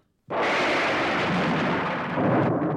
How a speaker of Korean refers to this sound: 태풍이 오는 모양이었습니다. 천둥 번개가 요란했습니다.